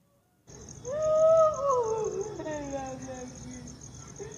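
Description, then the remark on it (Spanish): Dogs whine and howl anxiously in total darkness in long, overlapping wails that slide downward in pitch, loud, over a steady high-pitched insect-like drone. “escuchar los perros, cómo, cómo se, se, desesperan y, quieren saber qué es lo que anda ahí.”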